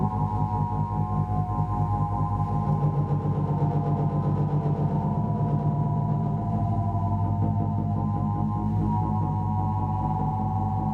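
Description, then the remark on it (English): Two vibrators, like those from a sex shop, buzz against the surface of a giant balloon, amplified by pickups on its surface, producing a deep, sustained bass drone with steady humming overtones that hold at an even level throughout, with no voices. “so, my giant balloon, I play with two vibrators on the surface, like from a sex shop, okay?”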